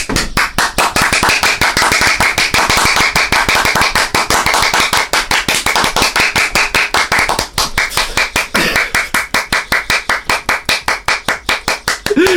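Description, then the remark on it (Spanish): Loud applause fills the whole stretch, a dense flurry of claps at first that gradually settles into a steadier, evenly spaced rhythm toward the end, with no one talking. “Vamos a retomar Euskal Pod, las jornadas moscas de podcast. se aplaude!”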